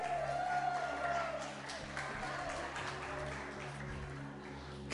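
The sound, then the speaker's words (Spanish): An audience breaks into steady applause for a new church member, a dense wash of many hands clapping at even loudness with faint murmuring voices underneath, ending in a brief louder burst. “Un aplauso para el hermano nuevo.”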